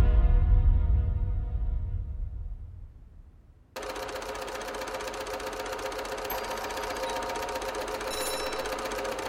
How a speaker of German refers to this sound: Seit 14 Tagen sitzt er nun schon täglich an dieser verfluchten Nähmaschine und näht. So lange, bis ihm die Hände schmerzen, die Fußgelenke anschwellen und die Augen tränen